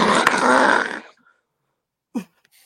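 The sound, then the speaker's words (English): A person fakes a loud, raspy snore lasting about a second, followed by a pause and a short vocal grunt. “If we're gonna be like Mike Francesa, shouldn't that mean we should be asleep on air?”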